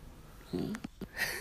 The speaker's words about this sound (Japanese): 犬の声ゴリ入りだと思う本当すごいもん膝の上来た珍しく